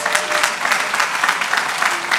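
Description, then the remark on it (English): A church audience applauds steadily as a clap offering to Jesus, a dense wash of many hands clapping at a fairly constant loudness throughout the brief moment, with no voices standing out. “And give Jesus a clap offering in the house.”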